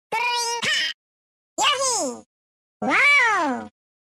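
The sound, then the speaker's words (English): Three short, high-pitched calls of the video game creature Yoshi, voice-acted by composer Kazumi Totaka, each a bouncy, rising-and-falling yelp separated by brief silences. The calls are loud and clear, with no other sounds around them. “From these original SNES and early N64 sounds, to composer Kazumi Totaka's excellent voice acting.”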